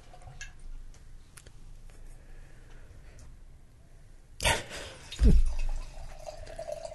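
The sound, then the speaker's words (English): A dark, 15.5% alcohol anniversary ale from the Bruery is poured into a glass: a sharp burst of liquid sound, then a brief gurgling fill with a rising tone, fading as the pour ends. No one speaks over it. “Let's pour this sucker.”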